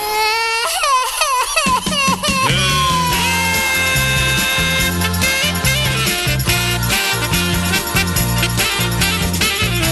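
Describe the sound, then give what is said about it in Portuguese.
A baby wails in a few rising and falling cries during the first couple of seconds, then loud, bouncy band music takes over and fills the rest. “Esse nenezinho vive a me amolar. Não é um bom menino, vive a perturbar.”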